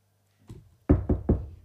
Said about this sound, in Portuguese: Ou então, eu ainda faço outra que é, eu bato à porta, eu faço, tá, tá, tá. Se ninguém, e eu digo, está aí alguém, e se ninguém responder, eu ainda mando outro.